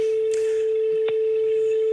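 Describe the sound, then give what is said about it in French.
A steady, unbroken telephone ringing tone of a call still ringing before any answering beep hums at one mid pitch for the full two seconds, with a couple of faint clicks over it and no voices. “C'est c'est le bip, ça, ou c'est la sonnerie Non, non, allez-y, ça sonne pour l'instant.”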